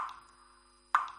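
Two hollow water drips from a leaking car radiator, one fading out at the start and a sharper plop about a second later, each ringing briefly in an otherwise quiet space.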